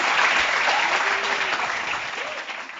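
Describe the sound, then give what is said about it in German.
Steady audience applause after a performance, a dense wash of many hands clapping at once, loud and sustained, tapering off slightly toward the end with no one speaking over it. “Ja, der Auftritt war alles in allem ziemlich gut und äh, ist auch gut angekommen, wie man gehört hat.”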